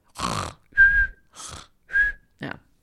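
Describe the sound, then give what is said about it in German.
A voice imitates cartoon-style snoring as Sleeping Beauty (Dornröschen) in a told fairy tale: rasping, snorting inhales alternating with thin high whistles on the exhale, about two and a half cycles in steady rhythm, fairly loud and with no speech. “in meiner Geschichte, in meinem Märchen schnarcht Dornröschen.”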